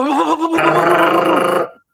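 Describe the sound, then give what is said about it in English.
A voice imitates a jackhammer: a short throaty lead-in, then a loud, buzzing, rapidly stuttering vocal rattle held for over a second before cutting off abruptly. “You know that thing that jackhammer, right? That that construct work.”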